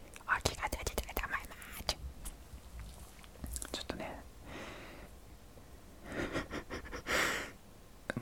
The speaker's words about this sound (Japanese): 久しぶりにねバイノーラルマイクで撮ってるんですけど今日ねあの僕今あれやってるんですよあの毛穴パックね毛穴パックやってるんでこれこれを剥がす音を皆さんに